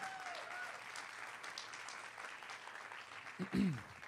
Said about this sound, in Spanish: Alguien le da un aplauso al Señor fuerte. Pero, come on, give the Lord a hand clap like you mean it.